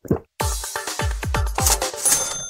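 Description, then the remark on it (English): A quick run of about six vitamin water droplets plopping one after another, fairly loud, each with a deep swooping blip and a bright, ringing overtone. “This is the sound of vitamin water droplets.”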